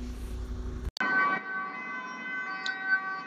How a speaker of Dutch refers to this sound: oh, ambulance.